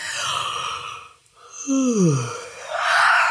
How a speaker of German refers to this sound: Du kannst gähnen. Ja, Gähnen hilft tatsächlich sehr, um dein Stresslevel zu reduzieren.